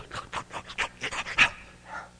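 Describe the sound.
A person imitates a dog eagerly sniffing and panting as it searches the floor for a missed morsel of food, a quick run of breathy, wet snuffles in rapid rhythm, moderately loud, ending with a softer drawn-out breath.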